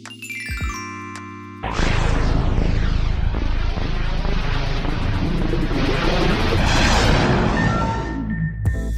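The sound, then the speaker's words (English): Bright glockenspiel chimes and synthesizer tones ring briefly, then a loud, dense rumble of recorded thunder played in reverse by code swells for several seconds before cutting off abruptly, followed by a short chiming tone at the end. “So now I had a reversed thunder sound, and I had my glockenspiel.”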